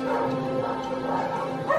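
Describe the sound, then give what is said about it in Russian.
Many caged dogs of various breeds, in rows of cages on a dirty floor in a spacious room on a rainy night, bark, yip and whine all at once in a dense, unbroken chorus. Fairly loud, with a steady low hum underneath and no one speaking. “На грязном полу в несколько рядов стоит множество клеток с собаками разных пород.”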